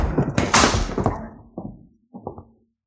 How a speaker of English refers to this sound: I'm going to shove them all into this vault and slam the door.